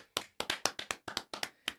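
Two people clap their hands together, about nine sharp, fairly loud claps in a quick, slightly uneven rhythm, with no talking over them.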